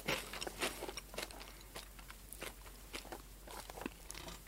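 Crisp crunching of Poteron snack sticks being chewed, with irregular bursts of brittle crackle repeating every half second or so, quiet background, no talking.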